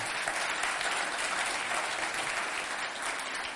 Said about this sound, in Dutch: Zullen we hem eens een applaus geven? Ja.